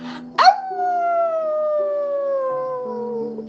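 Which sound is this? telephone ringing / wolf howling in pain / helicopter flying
wolf howling in pain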